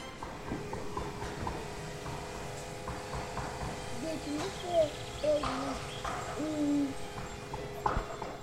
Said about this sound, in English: That was the sound of some birds and a man somewhere banging on some wood.